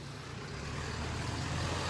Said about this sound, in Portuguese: deixa o caminhão passar.